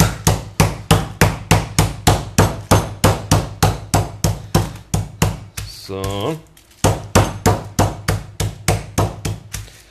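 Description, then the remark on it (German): A meat mallet pounds a butterflied chicken breast flat for a large chicken schnitzel in a fast, steady run of loud thuds, briefly pausing while a voice speaks a word, then resuming the rhythmic pounding. “Gut, dann haben wir eins schon mal platt geklopft, deswegen legen wir uns auf unser Schneidebrettchen.”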